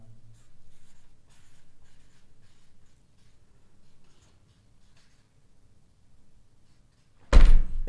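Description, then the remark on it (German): A pen scratches across paper in quiet, uneven strokes for several seconds as a vote is written down, then a sudden loud thump ends it abruptly. “Achso, ja, du hast ja noch nicht aufgeschrieben.”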